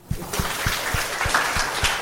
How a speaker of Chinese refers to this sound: 看出来他们的人生态度，为音乐家和随遇而安鼓掌。